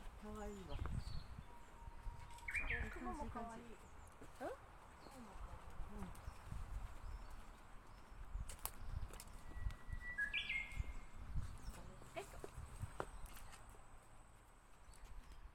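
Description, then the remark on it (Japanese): Japanese bush warblers chirp and call outdoors at a shrine by Lake Onuma near Hakodate, Hokkaido, Japan, in scattered bursts, some bright whistled notes standing out against steady ambient noise, with faint low rumbling and occasional clicks underneath. “北海道のこれは函館の近くうん、函館の近く大沼湖っていうねそうそう大沼湖の湖の大きな岩が割れたところの神社そう岩岳神社に来ています岩ヶ岳駒ヶ岳神社に来てます、ね、とりあえず鳥の音がすごいです”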